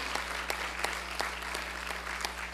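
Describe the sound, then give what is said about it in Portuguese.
An audience claps steadily in applause to the Lord Jesus, a dense wash of many hands with a few sharper accents standing out, accompanied by a low steady hum underneath. “Dá um glória a Deus e aplauda ao Senhor Jesus.”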